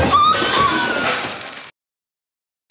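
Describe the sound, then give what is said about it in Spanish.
A dense, crackling rush of snapping branches and rustling leaves as a garden hedge collapses, loud for over a second, then sudden silence and a brief final rustle. “Diosito me mandó una señal y destruyó nuestro seto. Pero literal se cayó así de que todo.”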